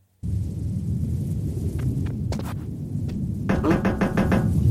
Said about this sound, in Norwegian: Ser ut som et lite sånn strømhus. Der han kakker i veggen, og så går han på andre sida, og så kommer fienden.